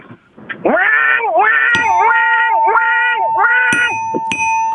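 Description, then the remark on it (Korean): The head of an automation equipment company imitates a cicada's call, a loud, nasal, buzzing drone that dips and swells in a steady rhythm about five times, with a faint ringing tone and a few sharp clicks. “자, 어, 대표님의 매미 소리 들어보겠습니다.”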